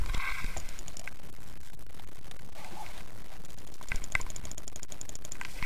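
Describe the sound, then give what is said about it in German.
A handful of sharp computer mouse clicks, made clicking on a download link, land at irregular moments, a couple in quick succession, over a steady low background noise with no talking. “Dann klick drauf. Klick, klick.”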